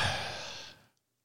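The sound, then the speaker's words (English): A single breathy yawn, a long airy exhale that starts strong and steadily fades out over about a second, followed by silence. No talking. “as I sit here and yawn on how boring it's become watching these fucking decommit tweets and firing tweets,”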